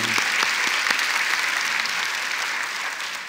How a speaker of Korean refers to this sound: 우리 하나님께 영광의 박수를 드리겠습니다.